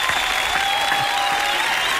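Steady applause from an audience, given for the Chilean marraqueta bread, a dense, even wash of clapping that holds the same loudness for the full two seconds, with no talking over it.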